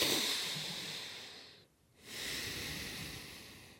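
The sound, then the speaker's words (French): Slow, deep breathing as a person concentrates on their breath: a long airy breath, a brief pause, then another long breath, steady and hissy with no talking. “Si je fais que respirer, que je me concentre sur ma respiration, j'ai plus de bruit.”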